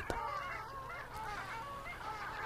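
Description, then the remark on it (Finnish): A chorus of nasal, yodeling calls from several long-tailed ducks overlapping continuously, several birds calling at once, with a low steady rumble of wind or water underneath. “Viikon luontoääni: Alli”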